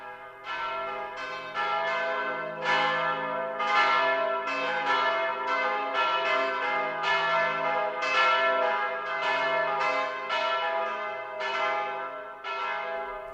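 Bells ring in a steady, continuous peal, with a dozen or so overlapping strikes whose resonant tones hang and blend together. The sound is loud, with no voices.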